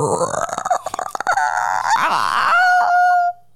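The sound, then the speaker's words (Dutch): A voice artist imitates a creaking door, starting with a rough, rattling croak and rising into a drawn-out, whining squeak that holds a steady pitch before cutting off. Loud, with no other sounds. “Dat kan een piepende deur zijn.”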